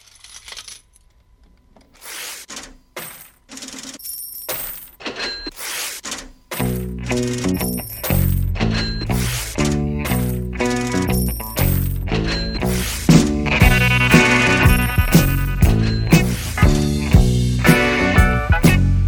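A rhythmic loop of clinking coins and register clatter plays alone at first, then a bass line and full rock band come in underneath and build to a steady groove.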